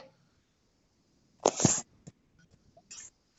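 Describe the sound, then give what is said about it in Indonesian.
A cat lets out a brief, sharp, breathy burst, almost like a sneeze or hiss, followed by a few faint clicks and a second shorter burst. No one speaks. “Aduh, ini kucing”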